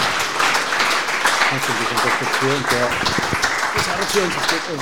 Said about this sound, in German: Danke den zehn anwesenden Leuten für diesen großartigen Applaus, großartigen Applaus äh, fürs Kommen.